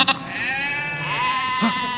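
A sheep lets out one long, wavering bleat, fairly loud, that fills almost two seconds before trailing off. No one speaks over it.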